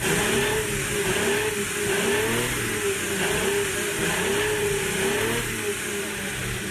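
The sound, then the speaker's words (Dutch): The small V12 engine of a Ferrari 125S, Ferrari's first road car from 1947, drones steadily as it revs, its pitch rising and falling in waves, loud throughout with no talking. “op die dag was de allereerste straatauto van Ferrari af. De 125S.”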